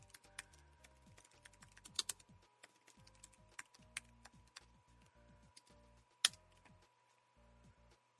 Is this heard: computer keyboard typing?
yes